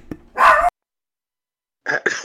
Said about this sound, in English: what did somebody let the dog loose on him? Yeah, it's my it's my dog, man.